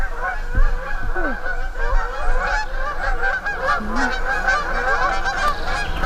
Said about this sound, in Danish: En flok gæs. Nej, svaner. Det er nok svaner. Kommer nok derude et eller andet sted. Der er de.